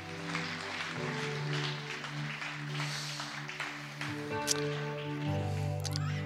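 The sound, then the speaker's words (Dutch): A crowd claps steadily and continuously for a man, the dense applause rising over sustained keyboard chords that shift a few times underneath. “Een applaus geven aan hem.”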